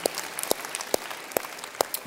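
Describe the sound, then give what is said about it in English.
An audience applauds a group of people who have just made a decision, a steady wash of clapping with a few sharper, louder claps standing out at a regular pace, with no one speaking. “Everybody, would you open your eyes and would you just give a round of applause to a whole bunch of people who made a very profound decision?”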